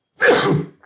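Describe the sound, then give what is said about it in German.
A single sharp sneeze bursts out loudly and fades quickly, followed by a faint trailing breath. “Gesundheit.”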